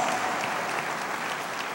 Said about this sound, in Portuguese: Você pode aplaudir esse Deus de toda a tua vida.